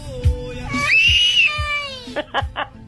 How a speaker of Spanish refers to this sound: Y se enoja. ¿Por qué lloras? ¿Por qué lloras? ¿Qué quieres oír?